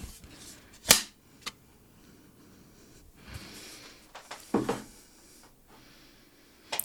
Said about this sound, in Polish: Na końcu uwaga będzie klaps, więc słuchawkowi mogą odłożyć słuchawki. Uważajcie.